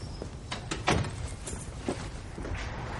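A consulting-room door swings shut with a few quick knocks and rattles, then one louder thud as it closes, with a faint click shortly after and soft background noise throughout.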